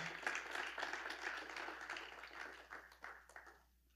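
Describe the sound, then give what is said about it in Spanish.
An audience breaks into steady applause for the Lord, dense overlapping claps filling the moment before thinning out and fading near the end. “Dele ese, ese aplauso al Señor.”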